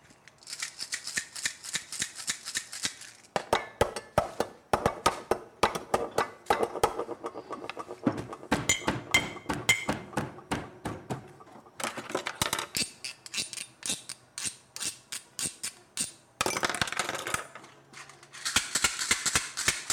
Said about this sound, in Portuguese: Batucou nos baldes, raspou a grade da janela com um graveto, bateu os cabos de vassoura, percutiu uma colher nas tampas de panela e foi montando sua nova coleção de sons.